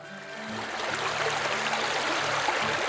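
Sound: flowing water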